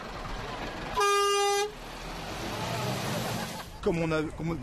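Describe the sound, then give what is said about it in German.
A loud, sustained car horn blares for about half a second over street noise as drivers honk in support of protesters in France, followed by a fainter, wavering horn-like tone near the end, with voices in the background. “Sehen Sie, die Leute hupen, ermutigen uns und diskutieren mit uns.”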